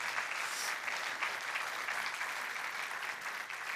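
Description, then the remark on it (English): Steady applause from a church audience fills the whole stretch, a dense wash of clapping hands at even volume without pause, welcoming a speaker as he comes to the platform. “Give him a warm welcome as he comes to the platform.”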